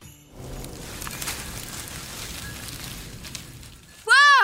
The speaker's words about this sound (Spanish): árboles haciendo sonar sus ramas para entonar villancicos. ¿Cómo sonarán las ramas de los árboles?